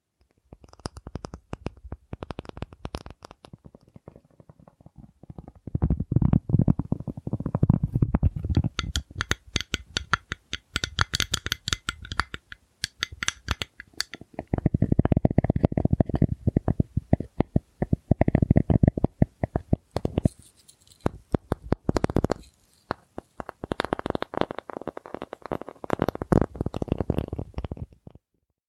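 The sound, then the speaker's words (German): Soft ASMR tapping and light scratching on a surface, repeated in slow clusters with brief pauses, quiet and intimate with no voices. “es gibt zum Beispiel ganz klassisch ist dieses Tapping, heißt es. Also das klingt dann ungefähr so.”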